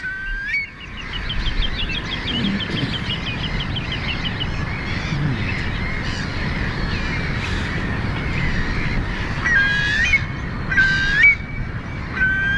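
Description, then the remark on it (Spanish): A chorus of shorebirds calling in open country by a rough sea, with a curlew's rising whistles standing out among gulls, redshanks, sandpipers and turnstones, harsher cries and rapid piping, some distant and some closer, over a steady wind-like hiss. “¿Cómo se llaman estos que escuchamos? Este es un zarapito. Hay gaviotas, hay archibebes, hay una serie de.”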